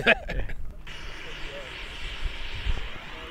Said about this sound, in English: that is the sound of liquid oxygen being vented from the oxidizer tank on uh, the Xodiac vehicle.